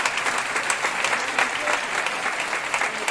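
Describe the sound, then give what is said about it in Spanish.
An audience claps steadily for about three seconds in applause for sisters from Ecuador, a dense, even patter of many hands with no pauses and no voices rising above it. “Ecuador, un aplauso para las hermanas.”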